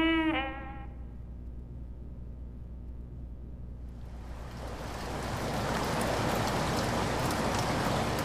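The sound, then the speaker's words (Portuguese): A brief tonal note fades over a low rumble, then heavy rain swells in around the midpoint and settles into a dense, steady, constant downpour hiss with no one speaking. “A chuva era constante, nunca ouvira tanta água caindo.”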